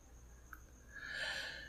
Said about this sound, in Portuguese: Eu falando, tentando falar mais alto que o grilo.